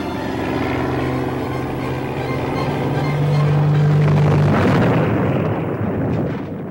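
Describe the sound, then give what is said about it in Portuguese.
A droning aircraft engine hums steadily, then gives way to a loud, rumbling burst of noise as a plane crashes and explodes in the air in a staged TV drama scene, with no voices. “E nós fizemos que ele caísse, explodisse no ar e morresse.”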